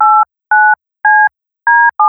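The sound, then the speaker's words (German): Telephone keypad tones: five steady two-pitched beeps, each about a quarter second long, separated by short pauses, with the last one cut off. No voices are heard. “Stell dir die Tastatur vor oder die Wählscheibe.”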